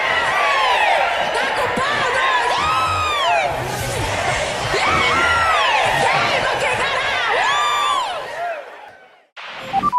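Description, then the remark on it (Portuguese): A loud crowd does a Ceará-style 'vaia cearense' booing contest, booing and jeering, many overlapping voices swooping up and down in pitch with shrill whoops, sustained for about eight seconds before abruptly dropping away. “É, é o concurso de vaia cearense, gente.”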